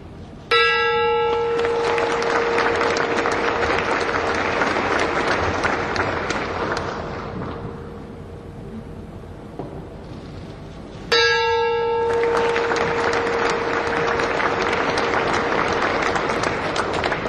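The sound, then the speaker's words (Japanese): A ceremonial bell is struck twice with a wooden mallet during a photo session at Tokyo Stock Exchange Arrows, about ten seconds apart, each loud clang ringing on with a sustained metallic tone over steady applause and crowd noise. “それでは川口教授ゆっくりと5回打賞をお願いいたします”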